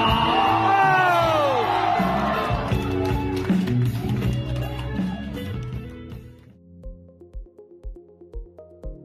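A loud rock song with shouted, yelling vocals over dense distorted instruments, which then drops to a sparse ending of steady kick-drum thumps and a few ringing notes.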